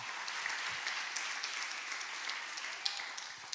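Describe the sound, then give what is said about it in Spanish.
An audience applauds steadily for God, a dense wash of many hands clapping at once with a few sharper individual claps standing out, holding at an even level throughout with no talking. “Vamos, dale un aplauso fuerte a Dios si tú crees esta verdad.”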